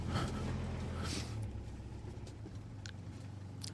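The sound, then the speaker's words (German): A slightly rusty car's engine runs steadily at low speed, a continuous rumble as the car slowly maneuvers out of a parking spot, trying not to touch another car, with brief faint clicks and scrapes over it. “Moment mal gerade erstmal gucken, dass ich hier rauskomme.”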